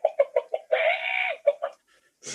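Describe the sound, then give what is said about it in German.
A chicken clucks in a quick run of short, close bursts, then lets out one longer drawn-out squawk before a few more clucks and a brief rustle at the end. “Und das Huhn, genau. Ohne Lüne Huhn kein Podcast.”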